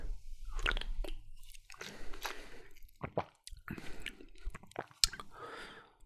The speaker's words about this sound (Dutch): Ik ga een slokje nemen.